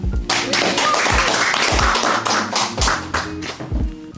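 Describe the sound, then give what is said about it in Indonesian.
A crowd claps steadily for about four seconds, a dense, continuous patter of hands with a few heavier thumps mixed in and no voices on top. “oke tepuk tangan”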